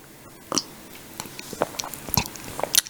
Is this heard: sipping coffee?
yes